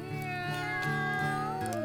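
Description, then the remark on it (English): A person's voice imitates a cat, drawing out a steady, nasal meow lasting under two seconds, fairly loud, with a faint rhythmic musical backing underneath. “And the cat went.”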